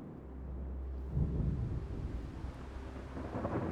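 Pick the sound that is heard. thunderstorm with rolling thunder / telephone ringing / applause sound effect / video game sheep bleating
thunderstorm with rolling thunder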